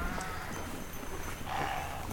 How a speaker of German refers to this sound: die Glöckchen, die die Pferde um den Hals haben, die hier schnauben